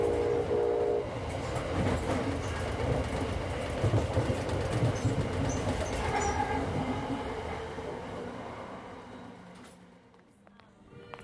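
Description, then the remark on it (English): A train travelling from New York up to Boston rolls along the rails with a steady low rumble and rattling clatter, loud, before the noise fades away near the end. “When my travels next took me to New York, I knew I had to take the train up to Boston to meet her in person.”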